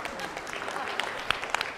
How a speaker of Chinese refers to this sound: 我觉得可以鼓掌啊！